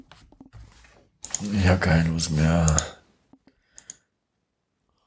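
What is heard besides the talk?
computer mouse clicking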